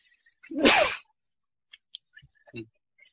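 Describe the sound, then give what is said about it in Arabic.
A single loud sneeze erupts in one sharp, breathy burst, followed by quiet with a few faint clicks and a short soft vocal sound. “رحمك الله”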